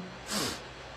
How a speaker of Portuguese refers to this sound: Hoje tá sinfonia de nariz congestionado, tosse.